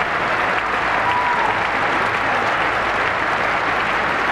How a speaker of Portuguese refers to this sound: Russell chegou em segundo, palmas para ele!